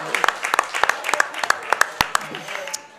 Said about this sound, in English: Hey, let's give our little baby eagle a round of applause hey, as she heads out.